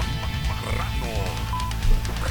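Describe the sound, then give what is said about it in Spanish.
Pigs oink and grunt in a short, dense burst of snorting noises, fairly loud, with overlapping squeals running throughout. “Exactamente, los chanchos están hablando”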